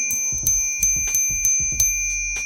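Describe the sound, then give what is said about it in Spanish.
A small bell rings about six times in quick, steady succession, each clear metallic strike leaving a bright shimmering tone that lingers after the last one. Fairly loud, with no talking. “Que tengo una ah, campanita, mira.”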